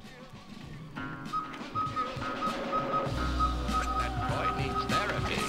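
A cuckoo call from the third volume of the Sound FX sound-effects record ('62) by New York-based Audio Fidelity Records repeats over and over in a steady rhythm. Its clear whistled notes sound above a noisy background, and a low rumbling hum joins midway.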